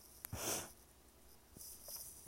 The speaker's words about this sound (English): Please excuse my sniffing because of my cold.